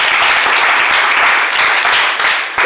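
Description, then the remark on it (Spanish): A crowd applauds steadily, many hands clapping in a dense, continuous patter that stays loud throughout before dipping slightly near the end. “Y al el aplauso, por favor”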